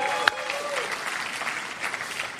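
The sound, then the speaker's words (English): A church audience claps steadily for the opening weekend of football, many overlapping hand claps forming a dense, bright wash of applause with a sharp single clap standing out near the start and faint voices mixed in. “Speaking of football, next Saturday, if you're excited about opening weekend, just how about a hand clap of something in here?”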